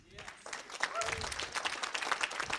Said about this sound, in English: So give yourselves a hand for it because you're so amazing.